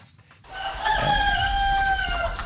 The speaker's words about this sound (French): Allons sur les traces de poules joyeuses chez Benoît Drouin, un éleveur qui fait bien son boulot.